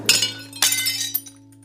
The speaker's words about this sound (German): Naja, ich würde es eher immer nicht mit zu Hause stehen lassen, weil wenn dann mein kleinerer Cousin kommt, der würde alles umwerfen. Klirr.